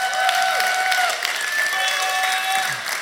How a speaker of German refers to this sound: Komm wir nochmal einen Applaus für unser Production-Team, das ist der Hammer.